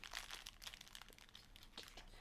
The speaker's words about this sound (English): Sorry if you can hear that scrinkly.